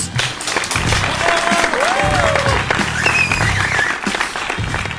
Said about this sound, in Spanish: ¡Aplausos!